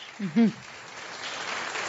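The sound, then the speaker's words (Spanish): A brief voice at the start, then steady applause from a crowd in the chamber of Peru's Congress as Francisco Sagasti, newly approved interim president of Peru, stands to receive it; a dense hiss of clapping that swells slightly and continues to the end. “Se pone de pie Francisco Sagasti en estos momentos para recibir el aplauso de la concurrencia.”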